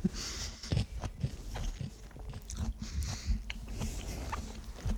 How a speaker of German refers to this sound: Mh, schön. Knackig. Ach, Schmatzen ist auch gut.